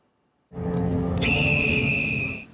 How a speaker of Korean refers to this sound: 호루라기가 울리자 오토바이가 달려나갑니다.